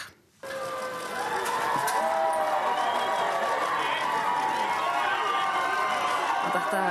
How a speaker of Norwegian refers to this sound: jubler briter utenfor sykehuset i London i går kveld, etter at det altså ble kjent at de hadde fått sin tredje tronarving i rekken.